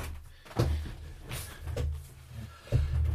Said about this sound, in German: Entschuldige, ich habe kurz aufstehen müssen und die Tür aufmachen bei mir im Studio, weil da war es auch zu heiß.